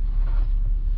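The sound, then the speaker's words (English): A steady low rumble of traffic, like cars moving along a road, heard while recording inside a car, fairly loud and continuous with no voices. “you might hear some cars in the background.”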